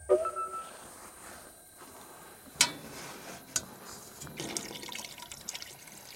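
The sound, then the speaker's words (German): Water is poured into a tank, exactly 5.1 liters with half going into the tank up to a marked line, a quiet sloshing trickle broken by a few sharp clicks and knocks, with the flow growing busier toward the end. No one speaks. “Und achte auf das Wasser. Du verwendest genau 5,1 Liter. Die Hälfte im Tank.”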